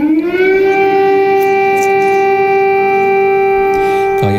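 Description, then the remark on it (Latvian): A loud air raid siren in Ukraine holds one steady, sustained wail rich in harmonics, droning continuously without pause and cutting off abruptly at the end. No one speaks. “Kamēr citviet pasaulē gaisu pāršalts līksmas, gavilis un uguņošanas dārdi, Ukrainā dzirdami sprādzieni un trauksmes sirēnas.”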